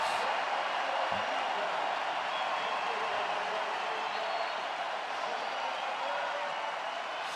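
A dense, steady roar of a huge arena crowd cheering at Oracle Arena, Warriors fans responding to Stephen Curry asking for noise during a third-quarter run, loud and sustained throughout with no pauses, a wall of massed voices filling the space.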